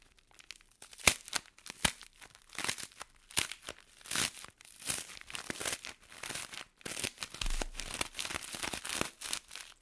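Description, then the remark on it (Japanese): An Umaibo corn puff stick snack, mentaiko flavour, is crushed in its wrapper, giving repeated crackling crunches and crinkly plastic rustles in irregular bursts, bright and crisp, with no one talking. “お菓子といえば音クイズですね、えー、この駄菓子潰していきますので何の駄菓子か当ててください”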